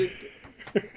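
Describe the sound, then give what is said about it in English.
A cat flap swings and knocks with a short hollow clack near the end as a cat comes in, fairly soft, over a quiet room hum. “if anybody heard that, that was the sound of a cat flap as a cat came in.”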